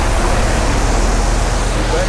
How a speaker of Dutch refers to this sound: Buiten komt een vrachtwagen voorbij, waarschijnlijk door de pont overgezet en op weg naar een bestemming elders